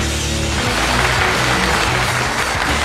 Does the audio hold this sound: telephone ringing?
no